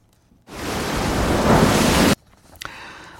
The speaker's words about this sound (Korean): 우리 기억 속에 있는 이 파도 소리 찾아주시기 바랍니다.